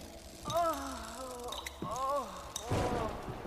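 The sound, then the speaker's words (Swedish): Two drawn-out, eerie moaning wails with a wavering, sliding pitch, each lasting about a second, followed by a breathy, rough exhale. The moans are moderately loud, with no speech. “Det märkliga ljudet som hon hörde tidigare påminner allt mer om jämmer.”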